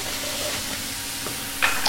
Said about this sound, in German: Wir braten die jetzt einfach scharf an, würzen mit Salz und Pfeffer